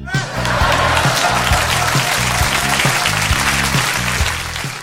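A crowd applauds loudly and steadily for about five seconds, a dense wash of clapping over a low, rhythmic thumping beat, fading slightly at the end.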